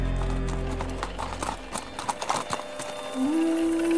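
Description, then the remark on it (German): The hooves of twelve horses, brought by a merchant to a hut, clip-clop in a quick, uneven rhythm, moderately loud, over a low rumble at first, with a steady held tone rising in near the end. “kehrte der Kaufmann mit zwölf edlen Pferden zu Validats Hütte zurück”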